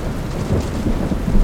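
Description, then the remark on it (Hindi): Heavy rain pours steadily with a deep, rolling rumble of thunder underneath, a dense, continuous wash of sound with no voices, swelling slightly louder toward the end. “पर्ची के हिसाब से बारिश रुकते ही हमें इस पुलिया को चलकर पार करना होगा”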